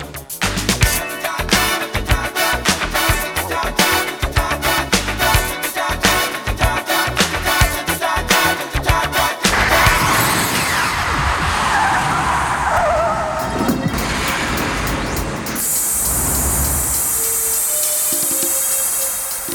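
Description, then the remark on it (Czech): A sci-fi time machine effect of a DeLorean car as its time circuits are switched on: rapid rhythmic electronic pulsing builds for several seconds, then a loud engine rush and tire skid sweeps through, ending in a steady bright hiss. No voices. “Zapínám časové okruhy.”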